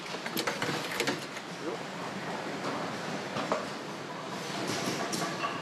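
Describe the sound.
Steady mechanical clatter of a riveting machine or sewing machine in a shoe-making workshop in Germany, with sharp clicks and bursts over a dense whirring hum and faint voices in the background.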